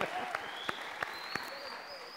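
An audience at Iglesia Vida Abundante applauds a church member with a steady, hissy wash of clapping, a few sharper claps popping out at an even beat, and a thin high whistle-like tone running faintly underneath.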